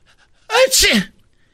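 A woman sneezes once, a sharp, loud burst with a quick breathy lead-in, surrounded by near silence.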